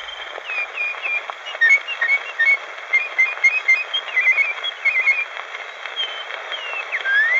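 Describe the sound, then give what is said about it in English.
Rapid, trilling artistic whistling imitates birdsong, warbling up and down through a thin, hissy old recording. The melody runs continuously, with no voices. “We have uh, some more artistic whistling now.”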